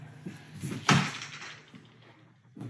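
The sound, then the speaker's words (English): The front door of a store with many plants, flowers and pots inside opens with a single solid clunk and a brief rush of sound that fades away as people walk in, followed by quiet room noise and a soft thump near the end. “So we'll walk in the front doors.”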